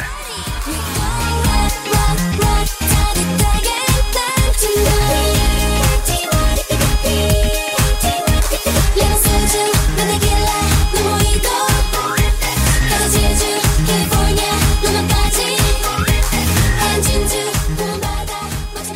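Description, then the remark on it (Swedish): A loud, dense K-pop (South Korean pop) track plays for about nineteen seconds, with a punchy regular beat, thick layered synths and bright high-end shimmer, steady and full throughout with no talking over it. “Så det finns något som kallas för K-pop som är alltså sydkoreansk pop då.”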